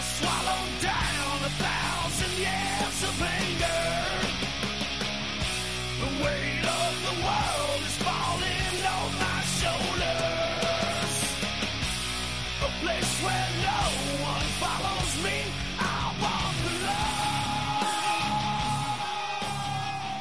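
A loud, dense hard rock track plays continuously, with distorted guitars, driving drums and a raw, shouted male vocal cutting through the mix.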